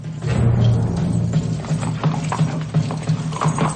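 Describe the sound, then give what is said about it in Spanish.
Steady clip-clop of horse hooves as Crassus rides out on his white horse, followed by Caesar, a regular rhythm of sharp knocks repeating about every third of a second over a low rumbling background, with no talking. “Craso sale sobre su caballo blanco vistiendo su uniforme de gala y seguido por César.”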